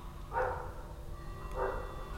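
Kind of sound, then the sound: animal, dogs barking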